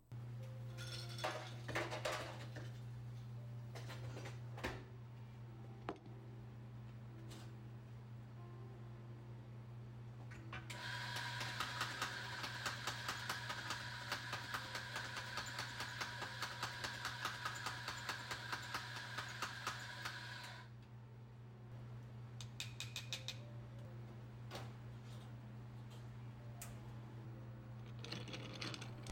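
Coffee being brewed: a steady low machine hum, then about ten seconds of loud, rattling mechanical whirring, with scattered clinks of cups and utensils before and after. Nobody speaks.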